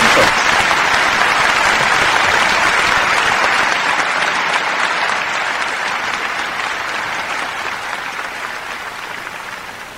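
Loud, sustained applause from a crowd on a Colombian radio news programme, a dense wash of clapping that holds steady for the full ten seconds and eases slightly toward the end, with no voices standing out.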